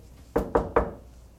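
Three quick, evenly spaced knocks on a hard surface, crisp, with nothing else but faint background hush around them.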